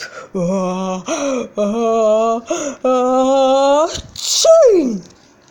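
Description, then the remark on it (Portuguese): A voice imitates a jaguar's sneeze, set off by the smell of pepper making its nose itch: several drawn-out, rising "ah" sounds build up, then a sharp, breathy burst and a loud cry that slides down in pitch. “Seu nariz danou a coçar e veio o espirro.”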